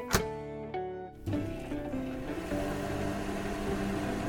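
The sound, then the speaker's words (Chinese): A newly bought microwave oven heating an egg in a bowl runs with a steady, fairly loud electric hum layered with buzzing tones, starting with a brief click and a short dip before the drone settles in continuously. “快把微波炉关掉啊！”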